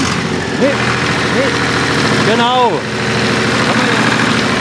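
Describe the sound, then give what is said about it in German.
The heavy engine of a tow service tractor idles with a steady low rumble throughout, while a man speaks briefly over it in a few short phrases. “Ein Traktor von Abschleppdienst.”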